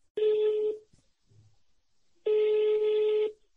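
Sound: telephone being dialed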